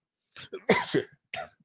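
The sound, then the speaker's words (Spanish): A fairly loud sneeze: a couple of short catching breaths lead into one sharp, explosive burst, followed a moment later by a smaller, brief gasp. No one speaks. “Salud.”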